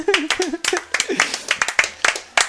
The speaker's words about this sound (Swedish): På 20 poäng, sportchefen. Claudio Ranieri. Ja, en applåd eller?